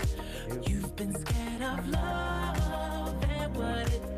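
A pop song plays at steady volume, driven by a thumping kick drum on a regular beat under layered synths and sustained melodic tones, with no one talking over it.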